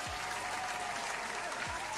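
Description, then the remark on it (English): A steady round of applause, dense clapping from many hands filling the whole moment at an even level, with no one speaking over it. “Let's give um, a round of applause.”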